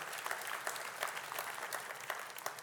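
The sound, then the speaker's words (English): An audience claps steadily for the teaching team, a dense wash of many hands with crisp individual claps popping through, sustained at an even level for the whole stretch with no voices over it. “Can we just let them know? I think they did an awesome job.”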